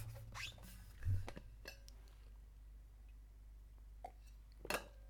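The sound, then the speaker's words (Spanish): Someone drinking water: a few soft, separate gulps and swallows with small wet clicks and one dull low thump, spaced irregularly over a quiet background with no talking. “Ah, voy a ver agua otra vez.”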